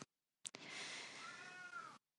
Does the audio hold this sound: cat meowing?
yes